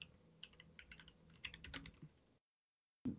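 Rapid clicking of a computer keyboard being typed on, fairly steady for about two seconds, then a sudden cut to silence before a brief noise returns.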